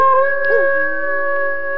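Several household dogs, both Thai and foreign breeds, howl together at night in long, sustained, overlapping tones, one voice briefly sliding in pitch, steady and fairly loud throughout with no talking.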